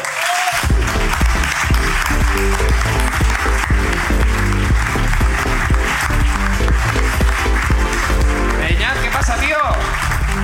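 An audience applauds loudly and steadily for about ten seconds as a returning guest comes up on stage, a dense crackle of many hands clapping at once with no pauses. No one speaks over it.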